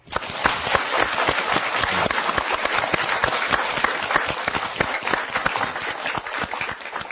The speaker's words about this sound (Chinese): 首先，掌声欢迎易老师。